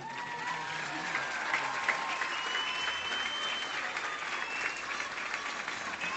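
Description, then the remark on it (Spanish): An audience gives a sustained ovation welcoming Javier Bodo, herald of the 2017 Hogueras y Barracas festival of San Vicente del Raspeig: a dense, steady wash of clapping hands that holds at an even level throughout, with faint crowd murmur and scattered cheers mixed in. “Recibamos con una ovación a Javier Bodo Progonero de las fiestas de hogueras y barracas de San Vicente del Raspé 2017.”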